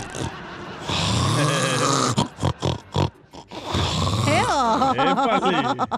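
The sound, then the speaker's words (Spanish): A voice imitates an old woman snoring in her sleep: long raspy, rattling inhales, a run of short choppy snorts, then wavering, whistling pitched exhales. Loud, with no real talk. “Porque así roncan las viejas.”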